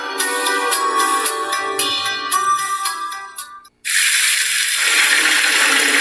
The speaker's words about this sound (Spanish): Hoy sí mientras sale el agua caliente para utilizarla después y me vaya en menos de cinco minutos. Hoy sí me comprometo a cuidar el agua.